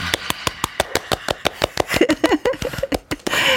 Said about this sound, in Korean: 어, 밖에서 많은 팬들이 노래 듣고 예, 박수를 치고 있습니다. 으, 같이 소통하는 느낌.